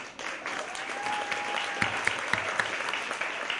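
A crowd at a conference claps steadily for several seconds, applauding the 80 organizers of the conference, a dense wash of applause filling the hall with a few sharper claps standing out, while a faint whistle-like tone drifts briefly underneath.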